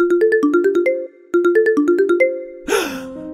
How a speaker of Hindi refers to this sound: उसका फोन बज रहा था उसकी नजर फोन पे गई उसने फोन अनलॉक किया